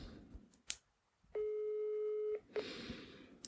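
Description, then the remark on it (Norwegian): An outgoing phone call rings with one steady electronic ringback tone lasting about a second, clear and fairly loud over faint handling clicks and background noise, with no answer and no talking. “Da kan man ikke bare ta hvilken som helst eh, telefon man får.”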